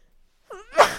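A single loud sneeze: a short rising intake of breath followed by a sharp, explosive burst that trails off. No talking around it.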